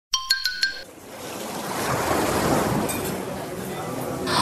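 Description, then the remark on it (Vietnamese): A few quick bright chiming notes ring out at the start, then a broad, rushing wash of sea waves rolls in and swells steadily, filling the rest of the moment, at a sunny beach with blue sea and white sand. “Ui, wow, mọi người nhìn nhá, biển xanh cát trắng nắng vàng trông đến là thích.”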